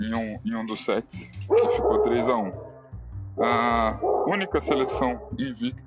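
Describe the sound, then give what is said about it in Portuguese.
A dog barks repeatedly in the background on a street, its sharp yips coming in bursts beneath a person talking steadily in the foreground. “Galera, desculpa o cachorro no fundo, mas eu tô na rua.”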